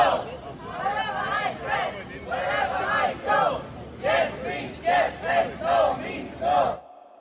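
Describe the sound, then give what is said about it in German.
A large crowd of counter-demonstrators in Munich chants in unison, loud rhythmic shouted bursts repeating roughly every half second to a second, with a dense murmur of voices underneath, ending abruptly. “Und außerdem waren Gegendemonstrationen angekündigt.”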